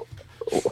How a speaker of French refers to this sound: C'est le chien.